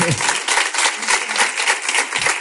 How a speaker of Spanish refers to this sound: que voy a dar un aplauso, desde luego.